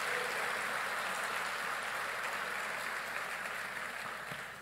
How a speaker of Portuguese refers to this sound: Aplauda o Senhor sempre, nunca deixe de fazê-lo.